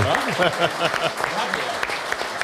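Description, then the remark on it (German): Audience applause rattles steadily for a couple of seconds, a dense crackle of many hands clapping, while voices talk and call out over it. “Und ich finde, das ist ein Applaus wert.”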